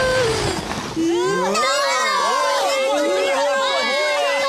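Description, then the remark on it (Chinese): A crowd cheers and shouts for the children who won a race as they reach the finish. Many high voices overlap in a loud, sustained burst that swells after a brief quieter start and keeps going to the end. “今天的冠军是这些孩子，为他们欢呼吧！”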